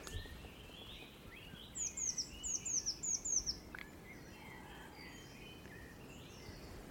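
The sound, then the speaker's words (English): Woodland birdsong of blackbirds and tits along an old winding lane between dry stone walls, hazel coppice and huge oak and beech trees below Mynydd Garn-fawr: a bright run of about six quick, repeated whistled notes stands out near the start, with fainter calls and chirps scattered behind it over a soft outdoor hiss. “There's a lot of blackbirds singing, a lot of tits flitting through the trees.”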